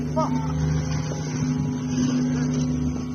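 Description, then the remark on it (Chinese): A fishery patrol boat's engine roars steadily throughout, a low droning hum with a constant tonal buzz, loud and unbroken, as melon-headed whales are released into the sea near Liangmao Islet off Toumen Port around nine o'clock; faint indistinct voices briefly audible over it. “瓜头鲸入水的声音被渔政船引擎的轰鸣淹没，它们光滑的表皮划破水流，悄无声息地迅速消失在黑暗的海洋深处。”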